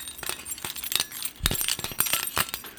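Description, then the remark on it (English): Car keys repeatedly slapped against a hollow copper pig used as a disappointment bell, producing a series of bright clinks and jangles in quick irregular succession, fairly loud, with no talking. “I just slapped my car keys against a copper pig.”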